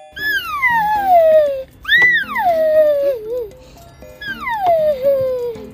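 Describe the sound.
A child from Berlin imitates a horse's whinny, three high-pitched vocal cries that each slide downward in pitch, separated by short pauses, with a slight wavering at the end of the second.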